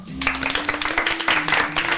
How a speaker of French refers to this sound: l'excellente performance des rugbeuses euh, qui ont réalisé un grand chelem et qui ont donc euh, tout gagné pour nous apporter les points de la victoire. C'est les seuls à avoir fait le Grand chemin. euh, de Nantes. On peut les applaudir.